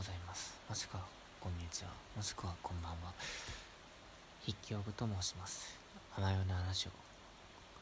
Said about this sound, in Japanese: まあデサン外は雨が降っている中でまあ、少々雨の音が入っているかもしれないですがそれも楽しんでいただいてということで